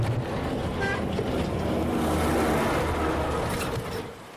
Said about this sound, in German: Der Truppentruck heult laut auf, als er an uns vorbeizieht.